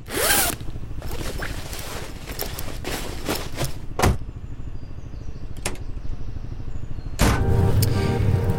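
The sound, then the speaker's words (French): Steady low road-and-engine rumble from inside a moving car at 3 a.m., on the way to the Ultra Trail Cape Town race, continuous throughout, with a few sharp zipper-like rasps and rustles cutting in. No one speaks. “Il est 3h du matin, on est en direction de la course dans la voiture”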